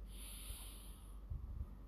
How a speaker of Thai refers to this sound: พร้อมการ หายใจเข้าทางจมูกครับ เป่าปากหายใจออกหายใจเข้าทางจมูก